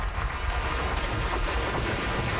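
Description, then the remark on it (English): Atlantic Ocean waves crash against an isolated African coastline in a loud, continuous roar of surf, with a rushing, wind-blown quality and no distinct pauses between breakers. “For centuries, they've been scattered by the waves.”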